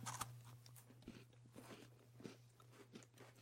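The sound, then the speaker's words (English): A sharp crunchy bite into a crisp brownie-inspired cookie, followed by several seconds of quieter, irregular chewing and crackling over a steady low hum. No one speaks. “It's got a crunch to it that mm-hmm, I wasn't mm-hmm.”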